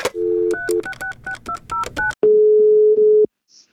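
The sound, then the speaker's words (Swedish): A quick run of about eight telephone keypad tones beeps out as a call is placed to Biblioteksutveckling Sörmland, then one long, steady ringing tone follows, clear with no voices. “Jag tänkte här att vi skulle ta och ringa upp”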